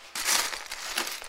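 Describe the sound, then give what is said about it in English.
Plastic Lego bricks being shuffled and rummaged by someone building with Lego, a bright, scratchy clatter that starts abruptly and keeps rustling with a few sharper clicks near the end. “That's the sound of Lego being shuffled.”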